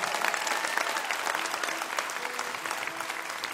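A concert crowd applauds the opening act steadily, a dense, even wash of clapping that holds at a consistent loudness for several seconds, with faint cheers mixed in and no one speaking.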